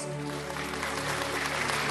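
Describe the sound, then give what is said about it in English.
An audience claps to welcome Apostle Dennis Nemi, known as Diamond Man, a steady, dense, continuous wash of many hands that holds an even loudness throughout, with a faint low tonal hum underneath and no voices. “So wherever you are right now, I want you to give him a clap innovation.”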